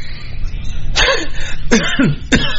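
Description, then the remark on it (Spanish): Three sharp coughs in quick succession, each a short harsh burst, spaced under a second apart against a low steady background rumble with no talking. “¿La, ¿Qué? qué la tos?”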